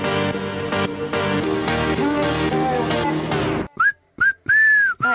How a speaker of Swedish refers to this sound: det där lät jävligt, det gjorde jävligt ont i mina öron. Jag känner att jag, så bra visselgrejen.